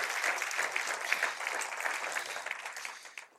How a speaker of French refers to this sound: Est-ce qu'on peut applaudir notre Dieu qui est une bénédiction pour nous?